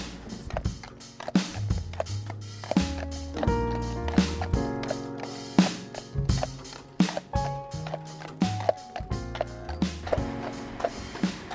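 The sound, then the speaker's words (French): Steady, rhythmic clopping of horse hooves mixed with the creak and rattle of a horse-drawn cart's wheels and fittings as it rolls along collecting compostable bags from residents, with no voices. “C'est agréable hein, le bruit des sabots.”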